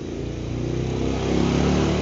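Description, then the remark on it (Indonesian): A motorcycle engine drones steadily as it passes, its low revving growl building slightly in loudness, with no voices over it. “sumpah motor lewat dulu”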